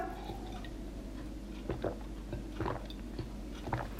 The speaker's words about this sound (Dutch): Nou, ik pak nog even een slokje water voordat ik verder ga kletsen.